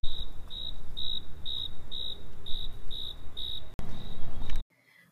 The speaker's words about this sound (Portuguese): Estava Dona Baratinha a costurar, veio o grilo incomodar.